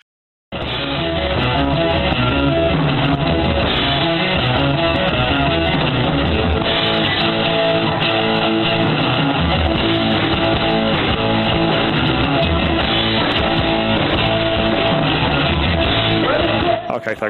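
A song plays in low-fidelity, muffled sound with the highs cut off, loud and continuous for about sixteen seconds, with what seems to be singing over a dense band.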